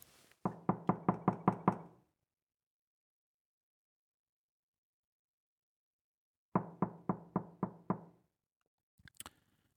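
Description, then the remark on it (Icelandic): Two quick bursts of knocking on a door, about seven sharp raps then six more after a pause, loud, followed by a faint scrape or click at the end. “Veltum fyrir okkur hvað að segja um okkur hvernig við böngum á dyr.”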